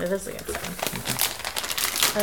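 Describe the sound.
A pancake mix package is crinkled and torn open, a busy rustling crackle lasting a couple of seconds while someone speaks briefly over it.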